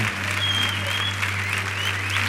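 An audience applauds steadily, a dense wash of many hands clapping at an even loudness for the whole stretch, with a faint low hum running underneath and no one speaking.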